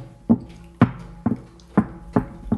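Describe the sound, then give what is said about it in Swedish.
Six dull, hollow thumps of a hand slapping a wooden table, struck at a steady, unhurried pace. Each hit is clear, with a short woody ring; no one speaks. “Det där låter som en hand mot ett träbord.”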